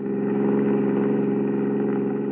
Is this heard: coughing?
no